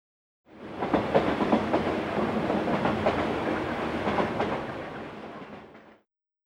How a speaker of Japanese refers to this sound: 毎日たくさんの人が電車に乗りますいろいろな電車が走ります東京には駅が800ぐらいあります。